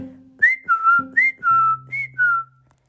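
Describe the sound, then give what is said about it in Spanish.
Someone whistles a short tune alone: six clear notes in three falling pairs, each pair a higher note sliding down to a lower one, over a faint low steady hum. “Iba el zorro por el camino, silbando como de costumbre.”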